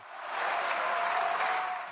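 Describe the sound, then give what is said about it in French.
Deputies in the French National Assembly chamber, standing on each side of the hemicycle, fill it with sustained, dense applause, steady and loud across the whole moment, with no voices standing out above the clapping, celebrating a 196 to 183 vote defeating the government on the health bill. “Un tonnerre d'applaudissements et des députés qui se lèvent de chaque côté de l'hémicycle pour célébrer leur victoire.”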